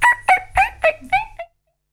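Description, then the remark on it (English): Chickens clucking, a quick run of about five sharp, throaty clucks over a second and a half, then silence. “Yeah, there's the chickens.”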